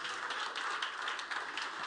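A church audience claps together during a sermon in a dense, steady wash of applause that holds at an even, moderate level for about two seconds, with no voices over it.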